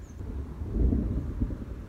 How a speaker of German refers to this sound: Es donnert